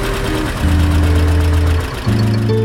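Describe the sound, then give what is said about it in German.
The engine of a Deutz D4506 tractor runs steadily, being warmed up after about two months out of use, its low throbbing drone shifting pitch slightly as the revs change, with no voices over it. “Traktor Sound, ein Podcast über Traktoren, Schlepper und Trecker.”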